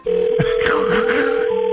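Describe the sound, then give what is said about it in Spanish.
A steady electronic telephone tone hums through the line as a call is placed to a singer, loud and continuous, with faint muffled voices and line noise drifting underneath partway through. “Vamos a marcarle este vato.”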